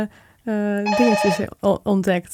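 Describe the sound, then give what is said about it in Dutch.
A doorbell rings with a steady, bright electronic tone, fairly loud, while a person keeps talking over it. “Ja, dat is de deurbel.”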